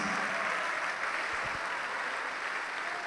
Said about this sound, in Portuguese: Oh glória, vamos aplaudir mais.